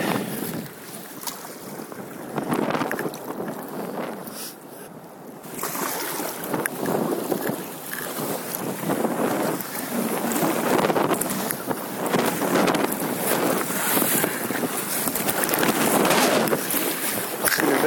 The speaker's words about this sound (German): Lass mal das Feuerlöschboot mal vorbei.